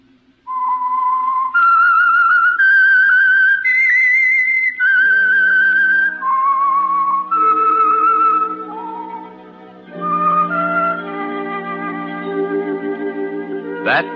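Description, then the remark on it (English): A loud, clear whistled radio program theme melody of long sustained notes stepping up and down, soon joined by orchestral accompaniment that swells beneath it toward the end. “whistle is your signal for the Signal Oil program, The Whistler”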